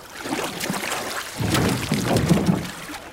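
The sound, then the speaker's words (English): Splashing and sloshing water with dripping and a few soft knocks against a hull, as someone quietly hauls themselves out of the water onto a trash man's small boat; no talking. “Quietly, let's pull ourselves out of the water and onto the trash man's boat.”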